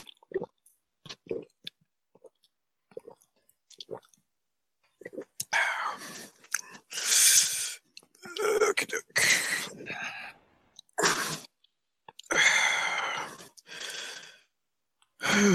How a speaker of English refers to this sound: Oh, that was that was a lot. That's what happens every time you drink water. you go through all that. um, was that a lot? It was like the drinking and the, some lip smacking, relaxing, a, a, a deep exhale.